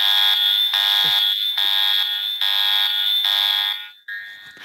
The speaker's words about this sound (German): Ich habe hier noch einen, sehr das ist der Gender-Alarm.